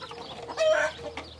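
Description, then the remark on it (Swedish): Hens clucking in a henhouse in an organic garden with greenhouses and fruit trees opposite a company's premises, a short burst of throaty, rising clucks followed by a quieter call, with no voices present. “Och där, överraskning, mitt emot företagets anläggning finns en trädgård med tre växthus, fruktträd och ett hönshus.”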